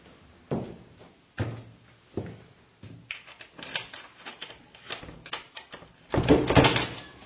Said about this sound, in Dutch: Hij ging de voordeur uit.